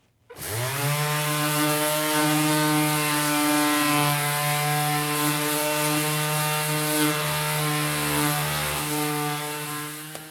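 random orbital sander running

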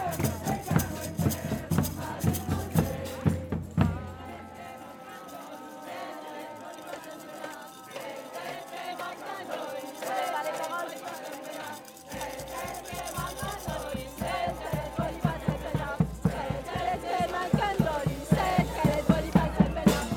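crowd shouting

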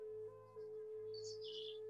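bird singing

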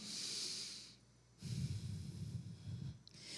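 deep audible breath

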